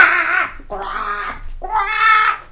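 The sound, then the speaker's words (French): A voice imitates a crow, as Baby Crow (Bébé Corbeau) in a read-aloud children's story cawing louder than ever, with three loud, harsh, drawn-out caws in quick succession, each nasal and strained, with brief pauses between. “fit bébé Corbeau, qui croissa plus fort que jamais.”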